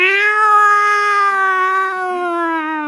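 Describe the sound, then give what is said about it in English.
A single long, drawn-out yowl from an alley cat, loud, holding a steady wailing pitch for about three seconds before sagging slightly lower toward the end, with no talking over it. “they're not even good cats. They're just like dumpster cats.”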